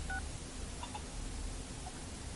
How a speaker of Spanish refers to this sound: El joven saca un móvil de la chaqueta y marca un número.